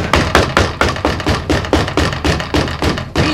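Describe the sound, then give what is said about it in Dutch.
A person outside a firmly bolted door knocks on it rapidly and heavily: about a dozen loud blows in a steady, insistent rhythm, with no voices. “Eh, zo te horen lijkt het gewoon een mens te zijn dat voor de deur.”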